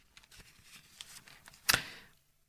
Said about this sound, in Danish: Blader, blader. Ja, og jeg blader, fordi... det er godt med det. og det er jo godt, at aviserne ikke er helt så store, som de var engang. De fleste af dem er jo efterhånden i et format, hvor man kan bladre hurtigt.